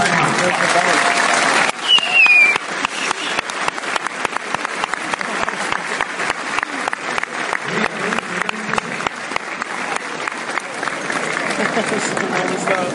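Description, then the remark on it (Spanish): Loud, sustained applause from a large standing crowd for the company's PC-rank leaders of the Momentum group, a dense rapid patter of many hands clapping that swells after a brief quieter start and holds steady, with a short whistle early on. “Yo les voy a pedir por favor que se levanten y les demos un fuerte, fuerte aplauso a los rangos PC de la compañía.”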